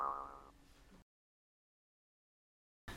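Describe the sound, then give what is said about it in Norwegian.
A single springy boing sound effect rings out loud, wobbling for about a second before cutting to silence, with a brief burst of sound returning at the very end. “Eh, la oss ta en liten transition her. Doi!”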